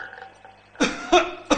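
A person gives a few short, harsh coughs, three rough bursts in quick, uneven succession after a quiet start, loud and throaty with no talking over them.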